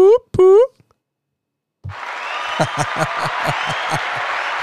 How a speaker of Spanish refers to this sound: Nuevamente aplausos.